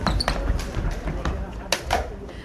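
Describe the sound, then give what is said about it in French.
Toy lightsaber blades clash in a quick, irregular flurry of sharp plastic clacks during a lightsaber competition, with a murmur of background voices and room noise underneath. “Dans les compétitions de sabres laser, le son qu'on entend, c'est ça.”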